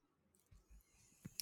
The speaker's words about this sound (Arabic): قاعد دقيقة دقيقة ها فتح القلم